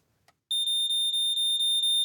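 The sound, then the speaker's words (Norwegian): A smoke alarm shrieks in rapid, evenly spaced high-pitched beeps, loud, starting abruptly after a brief quiet click and continuing steadily with no voices. “Tenk deg at du bråvåkner av denne lyden midt på natta. Det brenner i underetasjen, og du må få ut deg sjøl og familien fra andre etasje.”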